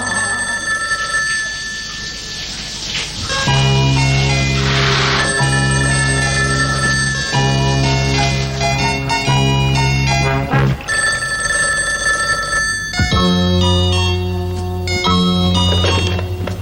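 A telephone rings loudly and continuously, its bright, tonal rings repeating steadily for the whole stretch with no voices.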